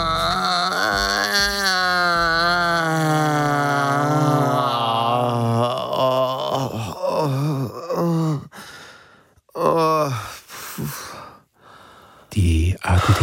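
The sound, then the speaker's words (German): A long, drawn-out distressed moan gives way to heavy, ragged breaths and gasps, loud, with short voiced groans between the deep inhales and exhales, from a person having a panic attack. “das ist alles schön. Atmen Sie tief ah.”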